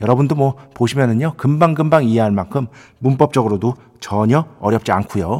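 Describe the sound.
A man talks steadily and clearly up close, his voice wrapped in an added reverb that gives each phrase a roomy, echoing tail.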